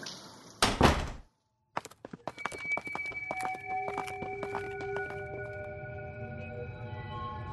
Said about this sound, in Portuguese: É, vocês adentram um local, fecham a porta atrás de si, deixando aquele, aquela umidade e aquele frio pro lado de fora.